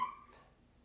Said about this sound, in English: Sorry, that was the cat.